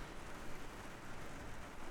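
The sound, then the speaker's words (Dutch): Steady rain hisses evenly throughout, a soft, continuous wash of falling water with no voices and no distinct drops standing out, fairly quiet. “Ik dus- luister heel even naar de regen ook hoor.”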